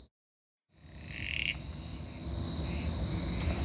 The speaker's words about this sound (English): Okay. We're hearing what we think is one of the uh, gungans, the uh, toadlets, Uperoleia. But uh, the grass is very thick. That being said, we have our Frog ID app.